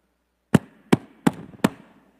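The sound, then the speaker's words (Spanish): Four firm knocks on a door, evenly spaced, each a solid wooden thud with a brief ring-off, and no voices. “tocaron la puerta.”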